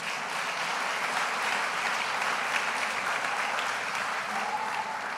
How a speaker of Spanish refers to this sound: Dale un aplauso bien fuerte a Dios.